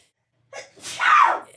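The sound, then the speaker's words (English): A single loud sneeze with a screaming, drawn-out vocal burst, starting with a sharp intake and rising into a harsh, bright shriek before cutting off. “I gotta scream when I sneeze.”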